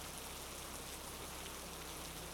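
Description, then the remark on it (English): Steady heavy rain from a thunderstorm, recorded in a backyard, pours down in a continuous, even hiss with a dense patter of drops, holding at a constant level with no thunder or voices. “There's something about heavy rain, the boom of thunder, and flashes of lightning that grips a very primal, fight or flight fear in me and I live for every second of it.”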